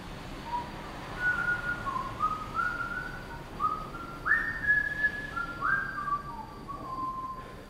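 A person whistles a simple melody, a string of clear sustained tones rising and falling step by step, heard alone at moderate volume over faint background noise.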